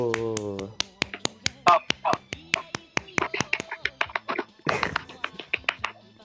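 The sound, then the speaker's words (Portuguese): Quick, sharp hand claps ring out in a fast, uneven burst of applause lasting several seconds, fairly loud, with a short vocal sound at the start. “bate palmas pro Saulo”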